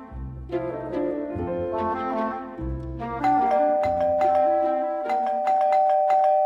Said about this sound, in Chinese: 这时，门口突然响起一阵急促的门铃声。